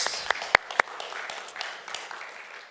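An audience applauds, a steady wash of many hands clapping with a few sharp, louder claps standing out near the start, holding at a moderate level throughout.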